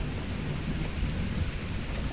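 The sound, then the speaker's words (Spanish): A terrible thunderstorm in Greece: heavy rain hisses across the whole band while deep, rolling thunder rumbles low and continuous, loud throughout with no voices. “Una noche, cuando eran pequeñas, una tormenta terrible las azotó en Grecia.”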